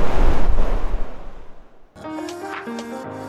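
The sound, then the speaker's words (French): A loud wave rushes onto the beach of Kervel at Plonévez-Porzay and washes out, its roar fading over two seconds, before music begins. “Cathy sur la plage de Kervel à Plonévez-Porzay”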